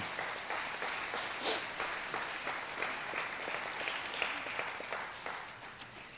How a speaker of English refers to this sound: this is where you can clap. I'm going to go ahead and prompt it, set it up.